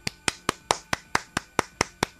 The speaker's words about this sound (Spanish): Nosotros te entendemos y te apoyamos. Y te mandamos este aplauso.